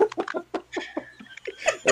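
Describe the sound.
A voice imitates a chicken clucking: a quick run of short, choppy clucks, uneven in rhythm and getting louder toward the end.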